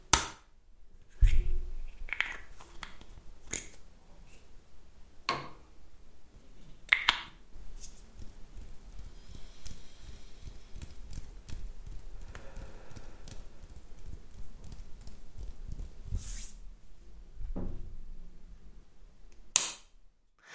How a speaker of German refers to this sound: Ja, das war meine Dr. Hauschka Regeneration Augencreme. Wer hat's nicht gehört? Und ich schätze die sehr, weil sie die perfekte Textur hat, so richtig cremig ist, rich, würde ich sagen.